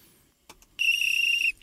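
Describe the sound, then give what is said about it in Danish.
A single loud blast of a referee's whistle, shrill and slightly trilling, held for under a second, preceded by a couple of faint clicks and with no one talking. “Vi fløjter den af her, fordi at, øh, ja, som så vanligt, så er tiden ned flyver afsted.”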